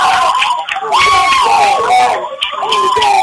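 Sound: basketball crowd cheering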